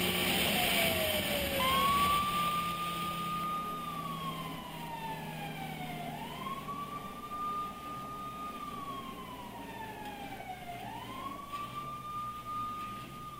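A police siren wails loudly as police pull a driver over on the road, sweeping up and falling back in slow, long cycles over a low rumble of traffic, with no one speaking.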